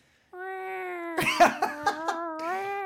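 A steady, sustained siren wail with a thin, mewing quality like faraway cats, holding for a few seconds while brief noisy bursts break in partway through.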